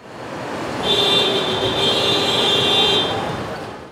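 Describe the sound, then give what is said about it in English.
A car horn blares in one long, steady honk lasting a couple of seconds over a constant rumble of idling engines and roadway noise from cars waiting to cross at the San Ysidro port of entry, the busiest border crossing in the country, among street vendors. “Cars screaming out in frustration against a backdrop of idling engines and street vendors.”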